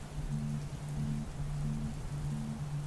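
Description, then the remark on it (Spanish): Steady rain from a summer storm at night hisses evenly throughout, a dense continuous patter with no voices, while a faint low hum pulses gently underneath at a regular pace. “El cielo está cubierto de una tonalidad gris oscuro y puedes sentir una leve brisa de una tormenta de verano que se aproxima”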